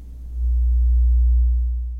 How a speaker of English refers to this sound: Okay, let's crank up that first sound again the hum of the grid.